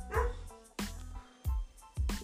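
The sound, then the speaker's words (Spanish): A small dog lets out four sharp, high barks and yips at a steady, spaced rhythm, fairly loud, with no talking over them. “Ay, mi perrito.”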